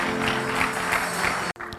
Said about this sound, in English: Clap your hands and stand to your feet.